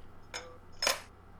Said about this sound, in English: Hey, so was that was that silverware? It didn't sound like the uh, crack of a can opening. That was uh, I was opening a beer bottle for once. It's uh, one of my top three favorite beers.